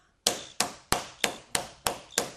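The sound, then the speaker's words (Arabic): Someone knocks on a door seven times in a quick, steady rhythm, each rap sharp and fairly loud with a short ringing tail, and no voices are heard. “يقوم حل الباب”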